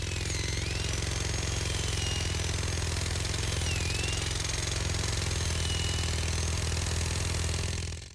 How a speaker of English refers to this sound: Presently, the giant mining robot locked on the dig site and drilled its footholds into the surface of the planet.